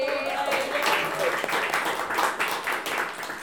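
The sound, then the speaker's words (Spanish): An audience claps steadily throughout, a dense, fairly loud wash of many hands, with a few voices or cheers mixed in near the start. “Estar aquí, la idea de ese podcast se la debemos hoy a hoy, por favor, un aplauso.”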